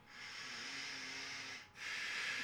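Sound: exaggerated heavy breathing imitation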